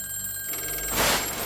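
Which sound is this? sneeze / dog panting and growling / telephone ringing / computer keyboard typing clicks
telephone ringing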